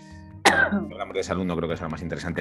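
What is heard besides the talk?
cough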